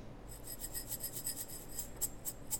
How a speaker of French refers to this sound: Avant de poursuivre, tu voulais aussi nous faire écouter le bruit des graines de chanvre.